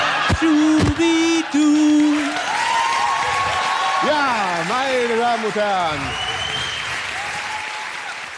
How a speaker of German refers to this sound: Ja, das war. So viel Applaus will ich auch mal haben.